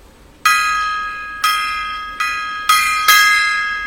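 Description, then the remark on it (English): A metal gong is struck five times at an uneven pace, each hit ringing out bright and sustained, the tones overlapping before fading. No one speaks. “Um, oh, yeah, gong time.”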